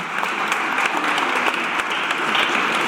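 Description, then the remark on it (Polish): Steady audience applause for Tomasz S. Markiewka: many hands clapping in a dense, continuous patter at an even loudness for about three seconds, with no voices standing out. “Wielkie brawa Tomek, dziękujemy Ci bardzo.”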